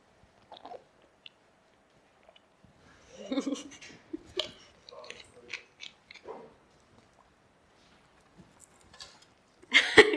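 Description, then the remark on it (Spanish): Someone drinks water right at the microphone, with a cluster of close, wet sips and gulping swallows in the middle and a sharper clunk at the very end. “entonces escucha todo lo que yo hablo y escuchó cómo tomo agua y lo hace.”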